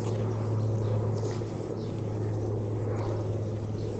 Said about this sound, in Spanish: están proyectando algo, puede ser un corto, una película, puede ser, no sé, puede ser un helicóptero también.